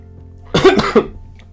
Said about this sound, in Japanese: すいませんちょっと咳が